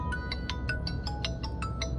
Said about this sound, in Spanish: Me llaman por teléfono al teléfono del trabajo, pero no lo puedo coger porque voy conduciendo. A ver quién me llama.